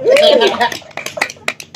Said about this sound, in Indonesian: Eh, tepuk, tepuk tangan dulu.